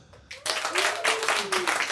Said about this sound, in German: Ähm, Leute, sind hier, sind hier äh, Raucher? Einmal klatschen. Gibt's Raucher hier? Wow, zwei.